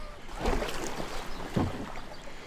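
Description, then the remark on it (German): A person paddles a small boat: two paddle strokes splash through the water about a second apart, over a steady wash of water and light wind noise. No one speaks. “So, das Boot ist im Wasser.”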